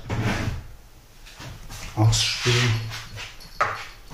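A drawer slides and bumps shut, with a second lighter knock a moment later, while someone murmurs faintly in the background.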